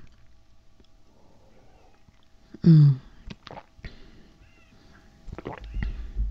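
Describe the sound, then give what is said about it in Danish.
Someone takes a loud, short slurp of coffee, followed by a few soft swallowing clicks and a second quieter sip, with a brief murmur and quiet handling sounds. “Jeg skal lige have en slurk af min kaffe.”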